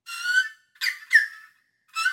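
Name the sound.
sparrow chirping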